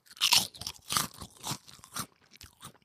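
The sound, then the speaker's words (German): Crisp crunching of prawn crackers, with a handful of loud brittle bites and chews in an uneven rhythm that fade toward the end. No one speaks. “ich habe hier nur ähm, Krabbenchips rumliegen”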